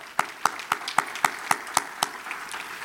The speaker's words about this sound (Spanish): Amén. Otro aplauso para el Señor. Gloria a Dios.